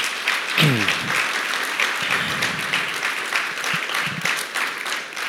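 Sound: audience applause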